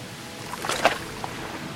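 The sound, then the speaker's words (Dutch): Sea water sloshing softly against something, with a brief splashy surge in the middle and a steady low wash throughout. No voices. “We gaan naar zee.”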